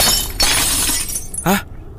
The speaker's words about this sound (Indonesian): Namun beberapa saat mereka tertidur, Rega dan Niko dikejutkan dengan suara kaca pecah yang cukup kuat.